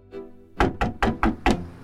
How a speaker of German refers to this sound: Patricia hämmert weiter an die Tür.